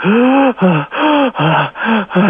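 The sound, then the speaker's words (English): A voice imitates a series of sharp, rasping gasps for air, about five quick loud intakes in a row, breathy with a strained, voiced edge, imitating the first spontaneous breaths of a woman. “started to breathe herself spontaneously.”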